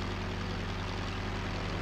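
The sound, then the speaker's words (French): A Caudron propeller airplane, loaded with 890 litres of fuel, takes off from the Wakam airfield near Dakar on 30 December 1936; its engine roars steadily and loudly, a low rhythmic drone filling the whole stretch with a constant hum and no voices. “Le 30 décembre 1936 à 7h23, je décolle sur le terrain d'aviation de Wakam, non loin de Dakar.”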